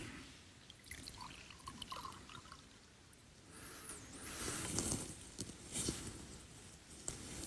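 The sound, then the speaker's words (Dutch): Water splashes and trickles into a cup in uneven bursts, the pour growing fuller and louder midway before tapering off, fairly quiet, with no talking. “ik wil dat illustreren aan de hand van wat water, bekers.”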